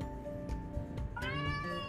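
A cat gives a long, drawn-out meow that rises in pitch partway through, heard fairly clear against a low background hum, with no one talking.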